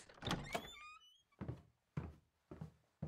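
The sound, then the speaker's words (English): An unlocked door opens with a sharp clunk and a short, creaky hinge squeal, followed by four heavy, evenly spaced thuds. No one speaks. “Your door was unlocked and.”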